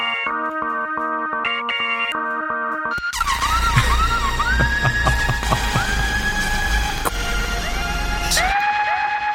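Synthesizer sounds spliced back to back: a pulsing, stepped electronic tone gives way to loud, siren-like rising and falling sweeps over a harsh, buzzing wash, with no voices.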